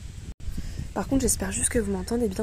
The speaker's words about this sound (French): parce qu'il y a un petit peu de vent. J'ai changé de téléphone, je sais pas ce que ça va donner.